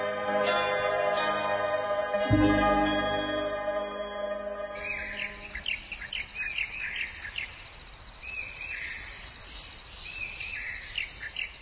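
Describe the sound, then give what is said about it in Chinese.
After a few seconds of sustained tonal music, birds in the Nansha Wetland, Guangzhou, China, heard from a boat on waterways lined with plants, take over with repeated high, quick chirps and short tweets scattered over a steady hiss of background noise. “坐在船上，穿行在被各色植物包裹的水路上，听着见货传来的鸟鸣声，好不惬意。”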